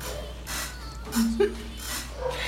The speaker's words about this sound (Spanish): Yo sé, pero los perros de mi vecino nunca van a dejar de ladrar.